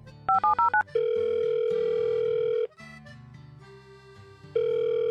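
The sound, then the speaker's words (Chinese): Four quick dialing beeps, then a long steady ringback tone of an outgoing phone call. The tone pauses over soft low background music, then sounds again. No one speaks. “不知道他们谈的怎么样，决定还是打电话问一下。”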